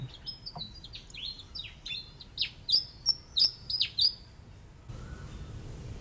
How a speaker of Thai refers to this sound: อัตมาได้ยินเสียงจิ้งจกร้อง